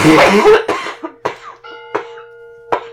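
A run of several sharp, close coughs in quick succession, the first harshest, then spaced hacking bursts, with a faint steady tone ringing underneath toward the end.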